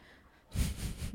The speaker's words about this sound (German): Habt ihr dieses Hintergrundgeräusch gehört? Das ist eine Katze, die sich in einen Wäschekorb reingeschmissen hat und damit vom, vom Bett geflogen ist. Gut gemacht, gut gemacht.